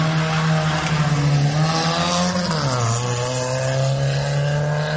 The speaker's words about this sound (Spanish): conductores arriesgan su vida al realizar piques ilegales desde el kilómetro 18 bajando en vehículos a toda velocidad